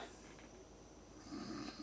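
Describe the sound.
A person imitates snoring, a rough, rattling breath that drones on and swells louder in its final half-second, with no words spoken.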